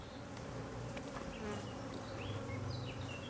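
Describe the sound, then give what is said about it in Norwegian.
A dense, steady drone of many honeybees buzzing together, continuous, with a few faint high chirps flickering above the hum. “En studie fra Nederland fra mai i år fant ut at honningbiene også kan lukte korona.”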